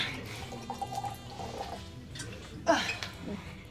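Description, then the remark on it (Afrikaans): Grape juice is poured into a glass, a soft splashing trickle that swells into a brief gurgling rush near the end, fairly quiet, with faint background murmur. “Jy kan maar skink, vriendin.”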